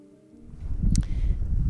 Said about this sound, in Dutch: Nou, daar zijn we dan in Bemmel. Auto op slot. Zo, het waait behoorlijk.